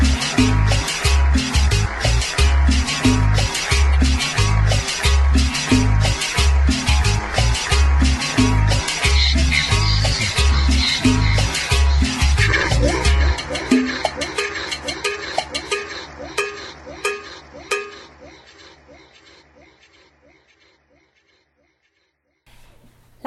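An upbeat cumbia tune with a steady, thumping bass pulse and bright, regular percussion. Partway through the bass drops out, and the music thins and fades away to silence.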